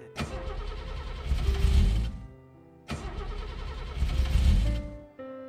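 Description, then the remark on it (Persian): A car engine cranks twice in a row, each attempt a loud grinding whir that rises and then dies away without the motor catching, with no one talking. “اینم که روشن نمیشه بزن میشه”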